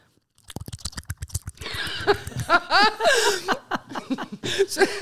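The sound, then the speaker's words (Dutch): A person imitates the sound of a man orally pleasuring a woman by grabbing and pulling their own cheeks with their hands: a quick run of wet, rhythmic slapping pops, then squelchy slurps and squeaky smacks, fairly loud, with a bit of chuckling. “Dat als je eh, iemand oraal bevredigt, als een man een vrouw oraal bevredigt, dan klinkt dat zo.”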